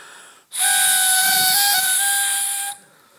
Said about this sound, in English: I actually thought this was going to be a good one. It was a harmonica until I started to play it.